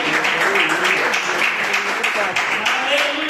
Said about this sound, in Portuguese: Glória a Deus e as palmas que louvam o Senhor.